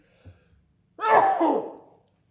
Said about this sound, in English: i'm gonna sneeze